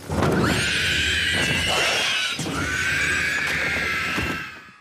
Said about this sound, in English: Here's a screeching ring wraith in The Lord of the Rings